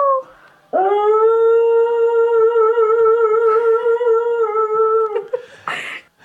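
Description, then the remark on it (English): A dog lets out one long, sustained howl, holding a steady pitch for several seconds before breaking off, loud, with a brief noisy burst at the very end. “that dog actually can hold a note longer than this fucking human being right here.”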